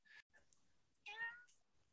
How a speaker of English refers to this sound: kitty cat. Yep. Yeah. She bust down the door and came in and wandered around, and now she's making a guest spot on the podcast.